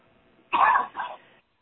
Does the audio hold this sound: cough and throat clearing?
yes